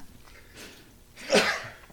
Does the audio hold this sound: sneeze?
yes